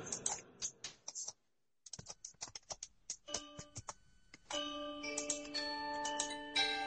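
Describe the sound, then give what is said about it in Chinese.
Rapid, irregular keystrokes clatter on a computer keyboard, pause briefly, then resume; midway a steady pitched electronic tone joins and sustains beneath the continued typing. No one speaks. “不是我唱个歌，不是我唱歌，你老抠键盘，他妈配合我干什么玩意儿？”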